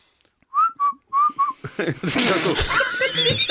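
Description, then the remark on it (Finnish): A person whistles four short, speech-like pitched notes in quick succession, mimicking a whistled language, then bursts of laughter and chatter take over, with more warbling whistles mixed in. “Musta tuntuu, että sä osaat vihellyskieltä vaan niinku baaritarkoituksiin.”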